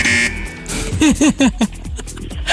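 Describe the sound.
During a trivia quiz game, a voice mimics a game show wrong-answer buzzer after an incorrect answer, with four quick, loud, nasal honks in a row, each a short downward-bending tone, after a moment of quieter background sound.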